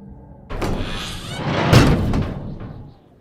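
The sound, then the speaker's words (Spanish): A heavy door grinds along for a couple of seconds and shuts with a solid thud, fairly loud, with no voices. “Artyom sintió de nuevo un escalofrío en la espalda y se apresuró a cerrar la puerta”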